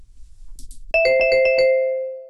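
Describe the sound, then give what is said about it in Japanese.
A bright electronic chime, played as a sample for listeners to guess what it signals, rings out after a brief soft rustle: a quick run of sparkling tones that settles into a sustained, ringing note, like a game-show correct-answer jingle. “あ、なんか、クイズに正解しました。”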